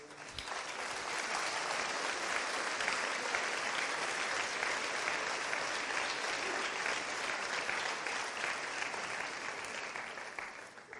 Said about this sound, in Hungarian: Nagyon köszönöm a tapsot